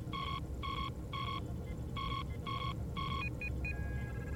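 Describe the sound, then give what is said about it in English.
A ship's sensor alarm, set off by stray radiation from a nebula, beeps in two sets of three steady electronic tones, then a few quick higher chirps, all over a constant low engine rumble with no one speaking. “Stray radiation from the nebula. I thought it was the proximity alarm.”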